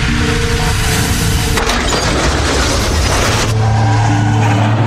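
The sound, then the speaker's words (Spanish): A loud, sustained crash of crunching and splintering debris erupts midway over a steady low engine rumble as a vehicle travelling at 60 km/h on a road with a 50 km/h limit collides with a car after braking hard. It then cuts off, leaving the vehicle hum droning on. “En este punto se fracturó el cuello, luego de chocar con el carro.”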